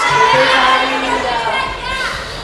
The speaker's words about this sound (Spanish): Aquí ha empezado unos minutos de alboroto por parte de las manifestantes, pero también del resto del público que gritaba afuera y el feminismo es de todos.